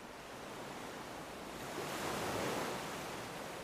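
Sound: ocean waves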